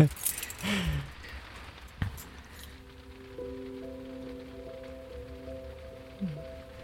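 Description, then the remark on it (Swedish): Faint, steady patter of rain beginning to fall outside, a soft hiss beneath a few clinks and a low electrical hum, with brief murmurs of people. “Ja, man blir tänker, oj, börjar det regna nu, nu, ännu nu.”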